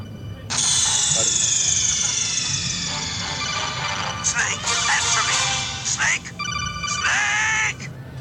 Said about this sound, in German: Äh, äh das, ist, das ist ja mal ein geiles, äh, geiler Klingelton,